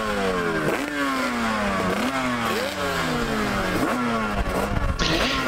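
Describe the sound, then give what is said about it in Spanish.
A tuned motorcycle engine revs loudly, its pitch climbing and dropping sharply four or five times in a rapid, sawtooth rhythm, with a brief hiss near the end. “que veíamos que hay preparaciones endiabladas que le encantan porque a más preparación de, esas motos, más sonidos, más cosas, es que son chulísimos.”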